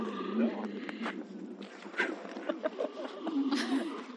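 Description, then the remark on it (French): Seals making display noises by inflating and shaking a nasal membrane to impress one another: a steady run of throaty, pulsing gurgles and snorts, fairly loud and continuous, with no talking. “Mais ça, c'est quoi C'est la muqueuse qu'ils gonflent et qu'ils agitent justement pour pouvoir. Je vais mettre un petit gif pour justement illustrer le, phénomène. Donc, c'est ces phoques déjà essaye de s'impressionner en c'est bruit.”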